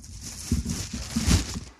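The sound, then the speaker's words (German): Crinkly plastic rustling with a few soft thuds and scuffs, as a person pulls thin plastic bags over their shoes in short bursts before entering a fish farm, with no talking. “Ich ziehe mir gerade so Plastiktüten über die Schuhe.”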